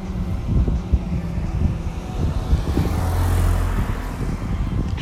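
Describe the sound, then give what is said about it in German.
A car approaches and rolls past in a remote spot away from any town or village, its engine rumble swelling to a peak midway and then easing off, with steady outdoor wind noise in the leaves and trees throughout and no voices. “Da kommt ein Auto.”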